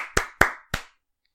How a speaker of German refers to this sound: Applaus.